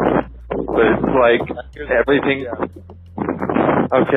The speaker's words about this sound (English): You're cutting out, and I don't know if that's because I'm walking in the wind now